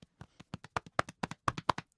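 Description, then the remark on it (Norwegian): A makeshift drumroll tapped out with hands, made just before revealing whom Barney marries in the series: around sixteen quick, dull slaps in a steady, slightly quickening rhythm, growing a little louder toward the end, with no voices. “Kan vi lage noe klappe trommevirvel?”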